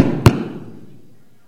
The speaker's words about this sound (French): C'était euh, comment débrancher la guitare rapidement en faisant du bruit.